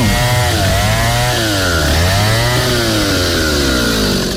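chainsaw running

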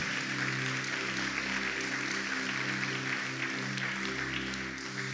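audience applause

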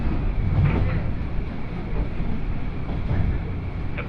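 train running on rails

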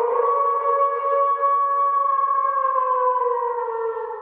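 wolf howling

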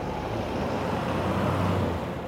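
truck passing by

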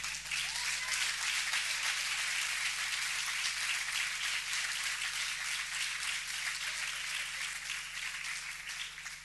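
audience applauding

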